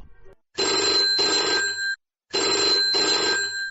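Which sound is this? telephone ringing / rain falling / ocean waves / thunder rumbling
telephone ringing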